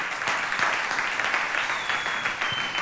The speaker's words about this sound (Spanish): Si le dan un fuerte aplauso, déselo bien fuerte, su Dios.